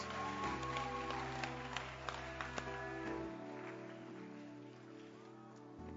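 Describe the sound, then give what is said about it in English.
A church audience claps their hands for Jesus together in a dense, steady patter of many hands, with a sustained keyboard or organ chord droning underneath and a few sharper claps standing out. “Clap your hands for Jesus and you may be seated.”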